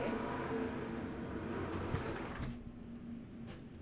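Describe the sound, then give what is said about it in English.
A heavy, continuous low rumble of large trucks rolling past, loud and steady before easing off slightly toward the end, with no voices present. “how large trucks just drive by.”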